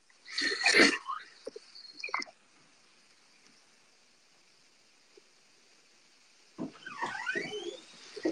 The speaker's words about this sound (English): All right, you can hear the creaky door in this haunted mansion over.